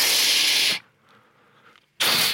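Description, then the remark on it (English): A voice imitates a spray nozzle used for washing dishes, making two loud, breathy hissing bursts, one long and one shorter, separated by a brief quiet gap. “Got my spray in one hand.”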